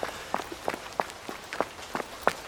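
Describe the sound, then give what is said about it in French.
Quick, regular running footsteps thud, roughly three strides per second, each impact sharp and distinct over a faint background hiss. “Mon pas de course résonne à l'intérieur de mon corps.”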